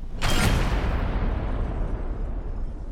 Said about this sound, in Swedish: Skottet skjuts.